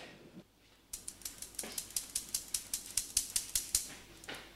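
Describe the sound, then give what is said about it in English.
Tapioca and wheat starch, 300 of each, being sifted through a sieve: a steady run of about seventeen quick, light, bright taps and rattles, evenly paced over a few seconds, with no one speaking. “And we're just gonna sift it.”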